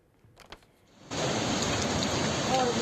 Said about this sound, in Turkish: Kuvvetli sağanak yağışın etkili olduğu yerlere bir bakalım.